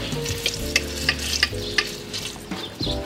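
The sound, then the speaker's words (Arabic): Bread frying in a pan and quickly turning crisp, a steady hissing sizzle broken by several sharp pops and clicks at irregular intervals, with faint scraping like stirring and a low hum underneath. No one speaks. “اوكي طلع الخبز كيف استوى بسرعه على السريع قرمش استعمل خبز ضلنا مقرمش فتره اطول شوي من الخبز العادي ما لحقت تحطه دغري قرمش على السريع لانه بضله يتلون”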